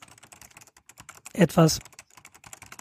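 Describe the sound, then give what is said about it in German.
Rapid, clattery keystrokes from an IBM Model M mechanical keyboard, typing in a steady stream of sharp clicks, with a brief spoken word cutting in near the middle. “das, was du jetzt gerade gehört hast, das war ein IBM M.”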